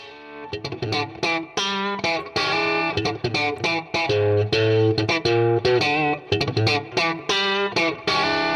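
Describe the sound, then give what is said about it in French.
An electric guitar plays straight through an amplifier with the gain pushed, with no effect pedals and using the amp's built-in tremolo: gritty, overdriven chords and short riffs with a steady rhythm, loud and sustained, with no voices over it. “évidemment, un ampli comme celui-là, il prend toute sa splendeur quand tu pousses le gain, quand tu pousses le son.”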